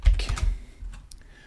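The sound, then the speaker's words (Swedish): A quick burst of computer keyboard typing and mouse clicks while clicking on a quiz question, several crisp taps clustered at the start and then thinning out into a few lighter clicks. “Och jag klickar ju då på första frågan som var julbock julbocken och ska jag ta julbock.”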